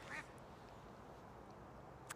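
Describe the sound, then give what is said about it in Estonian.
A duck quacks a couple of times, short nasal calls over a steady outdoor background hum, with one quick call near the start and another at the end. “part teeb oma tööd”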